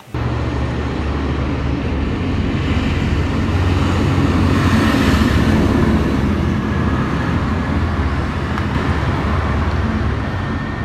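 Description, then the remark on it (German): A steady, loud rumble of heavy engines with deep low-frequency drone, as several tractors drive past continuously early in the morning before six, swelling slightly in the middle; no voices. “Na, hier sind aber eine ganze Menge Trecker unterwegs.”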